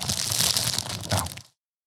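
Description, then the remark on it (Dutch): A snack package being closed: about a second and a half of crinkly plastic rustling and crunching that cuts off abruptly, with no voices. “Oh, je zet hem ook gewoon dicht”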